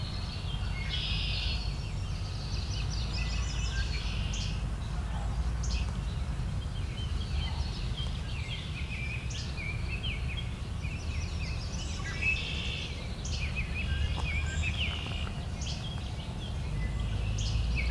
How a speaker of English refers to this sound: cedar waxwing it's just picked up.